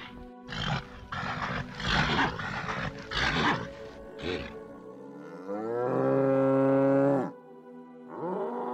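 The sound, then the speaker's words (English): Giant bulls bellow and roar: a run of loud, rough, throaty bursts, then one long drawn-out moaning bellow, and another bellow starting right at the end. “Finally, I recall there were elf bulls these giant bulls were bellowing and roaring up and down in the underearth.”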